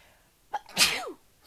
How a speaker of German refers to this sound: Moment, ich muss niesen.